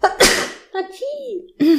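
One sharp, breathy sneeze bursts out, caused by hair tickling the nose, followed by a short spoken response and a brief vocal noise.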